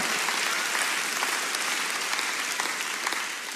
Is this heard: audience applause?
yes